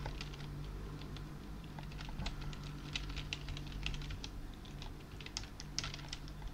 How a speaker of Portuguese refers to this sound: Segura aí, deixa eu escrever também. Meu teclado tá longe aqui.